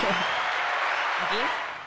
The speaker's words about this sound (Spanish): Aplausos para allá. Otra vez, eso está muy chévere.